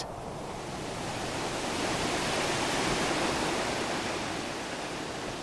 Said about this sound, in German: Der höchste Wasserfall Schwedens ergießt sich fast 100 Meter hinab in einen steinigen Canyon.